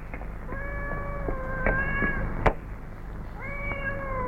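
Several high, thin kitten meows overlap in a cluster, repeating in short bursts with a brief sharp knock midway, then another round of mewing near the end. No one speaks.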